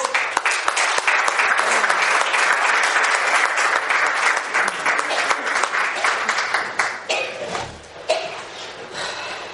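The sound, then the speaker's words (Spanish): An audience in Murcia applauds two people being introduced, steadily, a dense wash of many hands clapping at an even loudness for most of the time, thinning briefly near the end before picking up again. “Un aplauso para ambos.”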